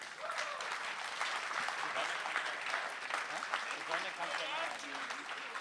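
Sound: audience applause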